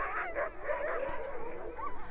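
A pack of dozens of Greenland husky dogs in Greenland, chained to rock, barks, yelps and howls at once while jumping and straining, a dense, continuous chorus of many overlapping voices, with whining cries rising above the din.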